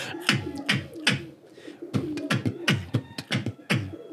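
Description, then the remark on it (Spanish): A beatboxer imitates bongo drums with the mouth: about ten hollow, pitched pops with a falling tone, in a bouncy rhythm broken by a short pause midway. No talking alongside. “Porque es un sonido compuesto entre un sonido que se llama el bongo drum, que hace...”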